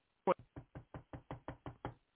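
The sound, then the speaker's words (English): Someone raps on a door nine times in a quick, even rhythm. The first knock hits hardest, and the rest sound solid, with no voices around them. “The scripture says God stands at the door”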